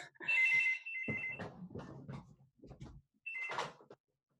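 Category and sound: household object, telephone ringing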